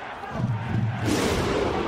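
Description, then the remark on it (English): A large crowd roars and claps; the steady clapping swells into a louder, denser wash of applause about halfway through, continuous, with no clear speech. “We stand by for the clap.”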